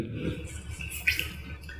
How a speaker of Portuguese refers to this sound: Como sempre em todo podcast, eu tô tomando minha água o tempo todo para estragar o, a fluidez sonora e ficar toda hora uma, um barulho de um bebê numa mamadeira que fica.